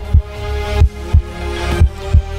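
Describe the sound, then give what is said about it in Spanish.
A steady, healthy human heartbeat thumps in deep, muffled beats at a regular resting pace, fairly loud, with a faint tonal hum sustained underneath. “Así es como suena un corazón sano, un corazón como el que ha recibido un estadounidense de 57 años”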